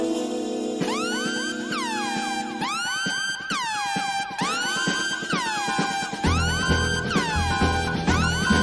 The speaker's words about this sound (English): we're gonna sound off this alarm just for you, buddy.